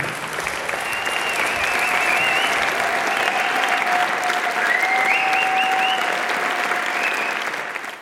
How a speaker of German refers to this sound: Ich hoffe, Sie hatten auch Spaß am Gespräch mit Herbert Bohaska. Was für ein Held! Herbert, Danke für den Applaus. Ich hoffe, Sie klatschen anschließend auch.